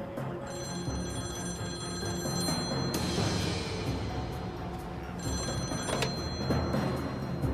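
A telephone rings in two long bursts separated by a short gap, a bright trilling bell over a steady busy background hum, loud, with no one speaking.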